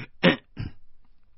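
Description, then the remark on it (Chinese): A forceful, throat-clearing cough from one person: a loud, harsh first burst followed quickly by a shorter, softer second one, then quiet. “我我我使劲的咳咳咳嗽了一声”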